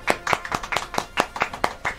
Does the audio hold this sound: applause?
yes